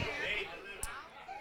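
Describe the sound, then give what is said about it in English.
A low murmur of many overlapping audience members chatting in a lounge, steady and indistinct, with a brief sharp clatter near the end. “I'm gonna just talk louder than everybody, so y'all conversations can hold up”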